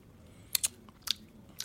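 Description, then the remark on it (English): A quiet sip of straight whiskey followed by a few short, wet lip smacks spaced out over a second or so, with no one talking. “yeah I'm going to take a sip of this real quick.”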